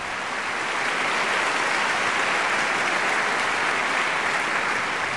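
Steady applause from a TV studio audience in honor of Pavel Borisovich Luspekaev, one of the 2017 anniversary honorees, dense and even throughout, many hands clapping at once with no voices rising above it.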